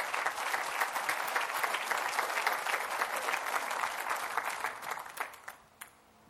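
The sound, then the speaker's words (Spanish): An audience gives applause to the Lord, with dense, steady clapping that holds for about five seconds, then thins into a few scattered claps and fades out. No one speaks over it. “Le puede dar otro, otro aplauso al Señor si gusta.”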